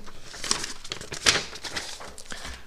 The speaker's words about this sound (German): Dass mal so ein Blatt umgeblättert wird oder mhm. so.